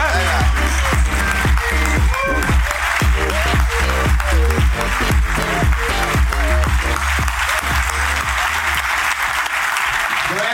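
A crowd applauds loudly and steadily for about ten seconds, a dense wash of clapping with a few cheers and voices mixed in underneath.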